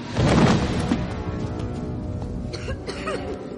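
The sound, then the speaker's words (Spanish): A girl coughs from dust in a wrecked washroom: a short, harsh burst, then a few weaker, breathy coughs and throat sounds. Heard alone, with faint background noise. “Los lavabos han quedado destrozados y llenos de polvo que hace toser a Hermión”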